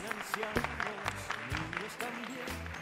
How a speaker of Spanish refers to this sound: Chao. Aplausos. Chao. Los queremos.